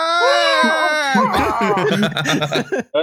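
A loud, drawn-out goat scream with a wavering, strained, human-like pitch lasts about a second, then breaks into choppy laughter and chuckling.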